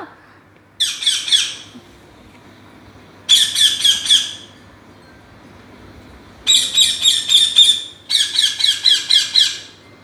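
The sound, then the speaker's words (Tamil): A green parrot with a red beak, among parrots eating fruit, squawks loudly in four harsh bursts, each a rapid string of grating screeches, separated by short pauses over a faint low background hum. “கிளிகள் பாருங்கடா எவ்வளோ அழகாக பச்சை கலராக இருக்குது அதனோட மூக்கு வந்து செகப்பாக இருக்குது அது வந்து எல்லாமே உட்காந்து ஜாலியாக பழமெல்லாம் சாப்பிட்டுட்ருக்குடா செல்லக்குட்டி இப்போ கிளி எப்படி நம்மளை வெல்கம் வெல்கம் வெல்கம் சொல்லுது பார்த்தீங்களா”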